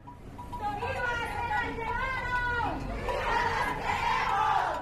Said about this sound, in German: Der Lärm von Trillerpfeifen, Blechtrommeln und wütenden weiblichen Stimmen aus Lautsprechern hallt durch eine Straße neben dem Gebäudekomplex des höchsten Gerichts in Guatemala Stadt.